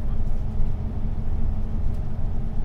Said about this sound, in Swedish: Dagens promenad är eh, stillasittande. Jag sitter på en buss och jag är på väg till Slussen.